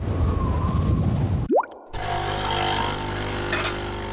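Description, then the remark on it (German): A coffee machine whirs loudly, a rising whine and a short pause follow, then a steady mechanical hum with buzzing overtones continues to the end. No one speaks. “So klingt es, wenn Ihnen George höchstpersönlich einen Kaffee zubereitet.”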